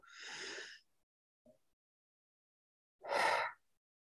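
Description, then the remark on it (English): A deep, audible breath drawn in, a brief pause with a small click, then a long, breathy exhale, clear with no talking. “but really breathing.”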